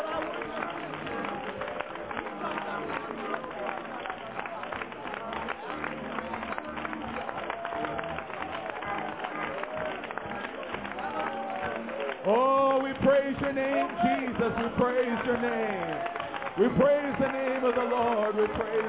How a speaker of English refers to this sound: Why don't we all put our hands together and give the Lord a big hand clap of praise tonight?